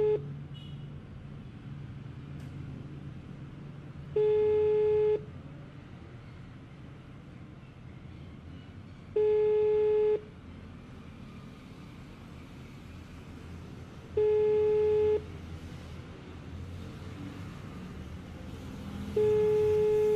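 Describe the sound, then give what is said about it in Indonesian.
A phone's outgoing ringback tone, heard while calling a friend, sounds four times, each steady beep about a second long with roughly four seconds of low hum in between, fairly clear and with nobody speaking. “Coba aku mau telepon dulu ya Semoga diangkat nih”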